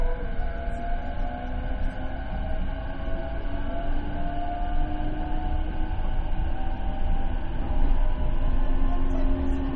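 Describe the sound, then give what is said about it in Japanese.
An electric train pulls away from platform 1, its steady low rumble joined by a rising, whining motor tone as it gathers speed over about ten seconds, loud and continuous with no voices. “1番線、電車が発車します。”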